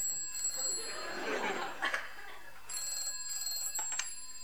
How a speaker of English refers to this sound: Phone ringing, sound effect.